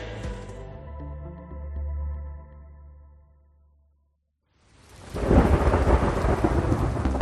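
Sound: rain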